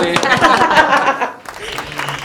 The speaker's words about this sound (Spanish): Vale, los aplausos de fondo.